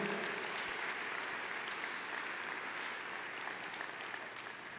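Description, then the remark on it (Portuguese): An audience applauds the Lord steadily, a dense wash of many hands clapping at once, sustained and even for several seconds without any talking over it. “Aplauda o Senhor, porque Ele é digno de toda a honra, de toda a glória.”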